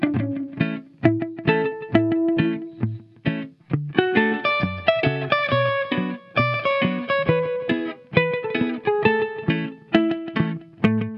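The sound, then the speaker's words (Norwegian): A short bumper jingle of loud, distorted, effects-heavy music with dense chords and a steady driving rhythm, played alone for about eleven seconds with no talking. “Bumper.”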